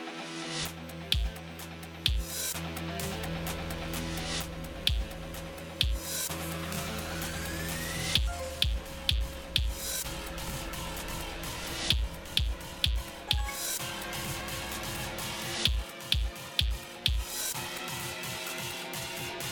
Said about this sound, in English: First listen to the audio cues, then repeat the pattern in time with the music. For the kick drum, repeat the pattern with the A button.